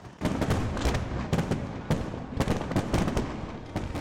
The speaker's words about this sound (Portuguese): Na capital de Taiwan, a queima de fogos foi no arranha-céu mais alto da ilha.